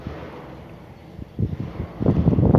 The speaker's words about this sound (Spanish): Soy testigo del sonido de mi propia respiración no intervengo, no la modifico, solo la observo, la escucho.